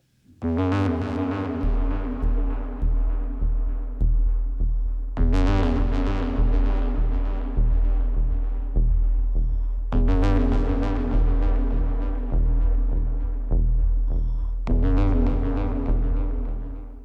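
A loud, deafening, steady whirring from a large bladed fan, swelling in a slow sweep every few seconds with a rhythmic throbbing pulse and deep hum underneath.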